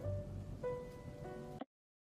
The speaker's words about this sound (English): Why is it raining? No, I don't want it to rain.